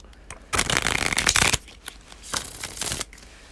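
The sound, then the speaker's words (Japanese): A deck of playing cards is shuffled, with a dense riffling burst lasting about a second, a brief pause, then a second quieter riffle; no one speaks. “音だと分かんないと思うけどシャッフルとかめちゃめちゃ上達してシャッフルだけでもちょっとおおってなるぐらいなんですけど”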